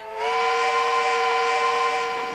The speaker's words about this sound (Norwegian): Tut-tut, sier frokosttoget.